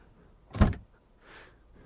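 An escape door in a room opens with a single solid thunk followed by a softer, airy sliding whoosh, fairly quiet, with no voices.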